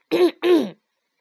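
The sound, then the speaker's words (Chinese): A mouse named Arthur stands up before a gathering of mice and clears his throat in two quick, loud, gravelly bursts with a brief gap between them, then silence follows. No speech accompanies it. “当脚步声和咳嗽声渐渐消失后，阿瑟站了起来，清了清嗓子，开门见山地说”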